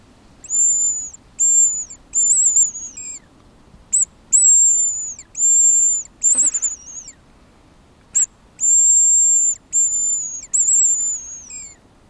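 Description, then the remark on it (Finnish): A series of thin, very high-pitched whistled notes blown on a hunting lure, imitating a hazel grouse call, in short separated bursts with a few drawn-out tones, fairly loud, no talking. “Onko tää pyy? Pyy. Joo, se on korkea ääni.”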